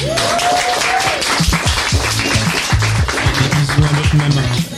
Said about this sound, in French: merci au motel qui nous accueille pour cet enregistrement public, le motel qu'on peut applaudir.